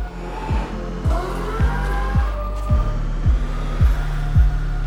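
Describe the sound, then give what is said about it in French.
A synthesized electric-car motor sound signature: a steady low electronic hum with rising whine tones overhead, punctuated by regular soft thumping pulses about twice a second. Moderately loud, no voices. “Et voilà les grandes enseignes lancées dans la compétition de la meilleure signature sonore, puisque leurs utilisateurs voudront désormais choisir le bruit de leur moteur comme on choisit la couleur de sa carrosserie.”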